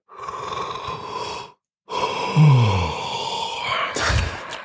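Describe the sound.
A drawn-out, breathy yawn made by a voice, with a sighing exhale that dips in pitch, followed by a second breathy yawn after a short pause. Fairly loud, no talking. Someone in an online meeting of company leaders yawns into an unmuted microphone during a presentation on a tired Tuesday evening.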